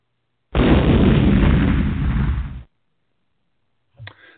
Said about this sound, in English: so we will move on from that explosion to the last name on your list